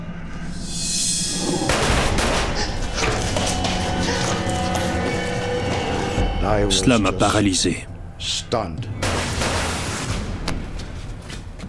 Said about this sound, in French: Les deux coups de feu ont semblé provenir d'en bas.